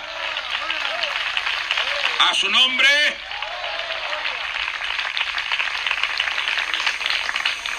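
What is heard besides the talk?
church audience applauding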